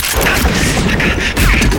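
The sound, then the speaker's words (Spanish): A loud, dense burst of gunfire, many rapid overlapping shots with heavy booming low end, raining on the cabin of a small train as it passes a station, chaotic and continuing unbroken through the whole moment. “La lluvia de tiros se encarga de hacer la ventilación de toda la cabina”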